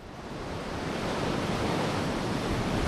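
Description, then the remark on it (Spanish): Heavy surf of strong swell with waves of 4 to 5 metres crashes continuously onto the coast, a dense, roaring wash of breaking waves that swells slightly louder over a few seconds, with no voices present. “Seguimos con fuerte oleaje, olas de 4 y hasta 5 metros que esta noche y mañana volverán a alcanzar los 6 metros de altura.”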